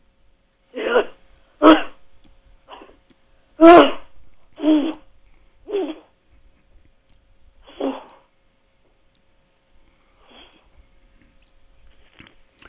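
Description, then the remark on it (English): A fairly loud voice lets out short, rough grunts in separate bursts, about seven of them at uneven intervals, with near silence between and fainter noises trailing off toward the end. “But when you make the sound, instead of making it intermittent, I want it to be continuous.”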